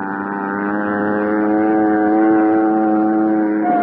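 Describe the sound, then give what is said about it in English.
A steady, droning engine hum with strong layered harmonics, like a small propeller plane, from a plane flying off into the darkness at night, holds fairly loud and even throughout without fading away. No voices. “I watched Al's plane until it was swallowed by the darkness.”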